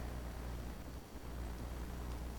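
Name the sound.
car traffic noise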